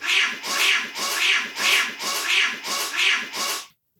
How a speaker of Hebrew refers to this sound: כרגע החתולים הולכים מכות. נייס, מי ניצח? אני לא יודע, אבל, אה, אבל פשוט אני לא רוצה שאת הצעקות של החתולים